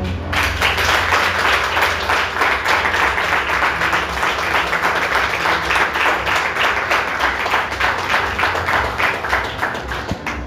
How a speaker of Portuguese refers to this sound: Aplauda, Senhor.